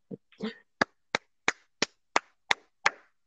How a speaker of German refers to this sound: Erstmal Applaus.